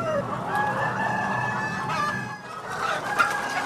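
Many chickens cluck and murmur together in an organic henhouse in Lappeenranta, a steady, dense chorus of overlapping calls with a few sharper squawks rising above the busy background.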